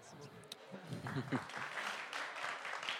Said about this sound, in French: Et merci, des applaudissements sont là pour vous aussi.